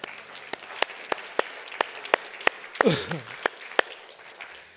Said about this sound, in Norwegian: Tusen takk til lovsangerne. Skal vi gi dem en varm applaus?